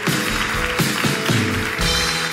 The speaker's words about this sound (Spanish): Ah, de, un aplauso más fuerte, si sea por decencia a los que están en YouTube.